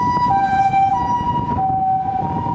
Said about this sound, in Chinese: 1時間で2台目の救急車です。先ほど救急車から15分ほどで、まあ救急車到着しました。